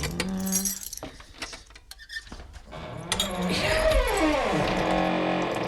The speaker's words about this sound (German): Da muss eben wieder der Dietrich herhalten. Wartet mal. So.